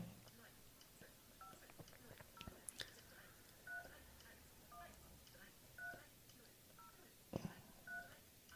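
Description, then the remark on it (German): A string of short, quiet touch-tone beeps as a number is dialed on a mobile phone, with the speaker calling his own number, spaced at a steady pace, with soft handling clicks and rustling in between. “So, ich rufe mich jetzt vom Handy aus an.”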